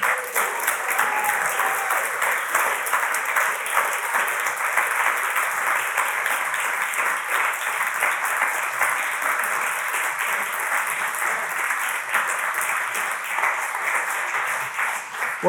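Sustained audience applause honouring a trustee who is stepping down, a dense wash of many hands clapping at a steady, loud level for the full stretch, with no speech over it.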